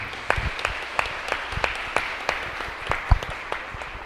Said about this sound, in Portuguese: Uma salva de palmas também para elas.